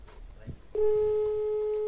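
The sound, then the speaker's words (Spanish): A telephone line tone sounds steady and clear as a call placed during a prize giveaway rings out with no one picking up, preceded by faint murmured voices in the background. “Aquí no lo cogen, ¿Qué estarán haciendo?”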